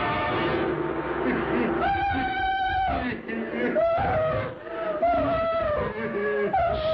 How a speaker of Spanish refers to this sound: Jane gritaba llena de horror al ver que un hombre de aspecto monstruoso se acercaba a ella